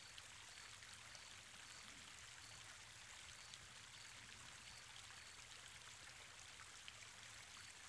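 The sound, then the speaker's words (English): Swift stream water rushes steadily over large rocks in a canyon between sheer cliffs, dropping in smooth tongues into small pools, a continuous bright hiss and gurgle that stays even throughout, with no voices or other sounds. “The sheer cliffs rising up on both sides have been carved over a million years by flowing water running swiftly here.”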